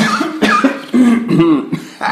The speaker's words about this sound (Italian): Intanto io tossisco sì, e no, cerco diciamo... di risolvere.